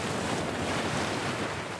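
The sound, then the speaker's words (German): A steady, powerful roar of steaming hot spring water gushing from the ground and pouring over mossy stones at one of the largest springs of a thermal region, loud, a dense continuous rush with no pauses and no voices. “Kraftvoll sprudelt das Wasser aus der Erde und ergießt sich über die bemoosten Steine.”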